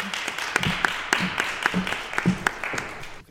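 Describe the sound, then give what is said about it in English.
A short burst of audience applause for a guest: many overlapping hand claps in a steady, crackling patter, fairly loud, with faint voices mixed in before it cuts off abruptly. “All right, let's give her a round of applause, everybody.”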